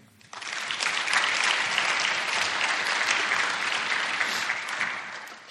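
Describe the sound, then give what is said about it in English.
A crowd claps steadily for several seconds after a prayer, a dense, sustained wash of applause that starts abruptly and holds at an even level before tapering slightly at the end. “Give them a hand.”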